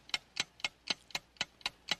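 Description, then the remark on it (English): A game timer ticks steadily, about eight crisp clicks at a brisk, even pace of roughly four per second, as the clock is started for a word-guessing round. The clock sounds clear, with no voices over it. “Start the clock okay. now.”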